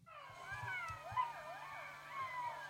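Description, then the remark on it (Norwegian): Several jackals howl together from the other side of a river, their high, wavering yips and wails rising and falling in overlapping pitches, over a low background rumble. “De står på andre siden av elven, bare vent, snart begynner det å ule.”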